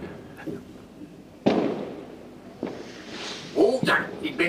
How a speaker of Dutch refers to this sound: Nou, er zijn aardig wat bandjes die eindigen met vuurwerk.